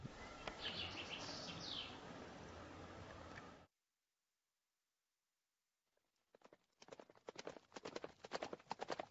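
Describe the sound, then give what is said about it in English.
After a burst of dense rushing noise and a few seconds of silence, horse hooves clip-clop in a quick, uneven run of sharp knocks that grows louder. “I hope you like horses and nature.”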